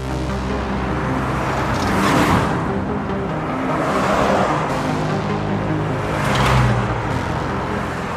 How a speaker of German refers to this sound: Die Steinbachstraße war schon immer eine vielbefahrene Straße. Sie verbindet den Erberer Kern mit der Schnellstraße in Richtung Jägersburg.